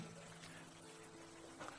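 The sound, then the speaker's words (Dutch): Water pours steadily into a glass for a couple of seconds, a soft continuous splashing trickle over a faint low hum. “En misschien kan iemand, heb je iemand een glaasje water voor me? Ik heb dat nodig.”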